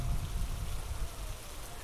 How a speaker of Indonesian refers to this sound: Namun kemudian, pres, hujan turun, padahal langit tampak cerah.